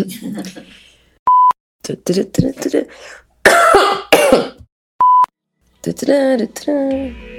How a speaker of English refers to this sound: I think you're gonna cough. Yeah, I am. Sorry.